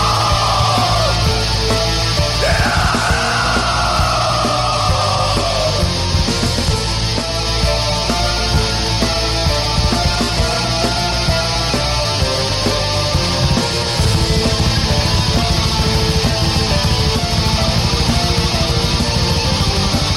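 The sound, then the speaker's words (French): A loud, dense heavy metal song from a 1996 album plays throughout, with thick distorted guitars and relentless drumming, while harsh, strained screaming vocals wail and slide over the wall of noise. “Ah, le, vocal torturé, moi, c'est un de mes vocales préférés en ah plus.”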